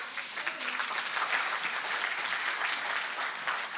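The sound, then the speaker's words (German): Sustained audience applause for three volunteers stepping up onto the stage, a dense, steady wash of many hands clapping at an even loudness for several seconds with no voices standing out. “Gebt ihnen mal einen Applaus.”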